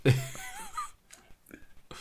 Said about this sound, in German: Warte, jetzt sag mir doch nicht, du hast über den Furz nicht gelacht.